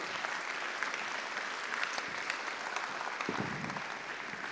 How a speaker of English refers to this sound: And so, give them a, give them a, a huge round of applause. There you go.